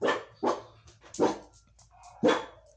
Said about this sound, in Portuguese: foi, cachorro? Cala a boca. Cala a boca.